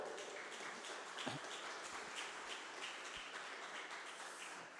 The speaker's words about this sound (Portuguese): Aleluia! Dê um brado de júbilo ao Senhor e aplauda Ele.